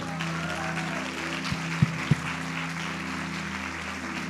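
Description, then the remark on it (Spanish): A crowd applauds for the speaker's wife, steadily, a dense, even wash of clapping that lasts the whole moment, with a low sustained hum underneath and a few brief thumps partway through. “Y bueno, pues las felicito y un aplauso para mi esposa, qué bárbara.”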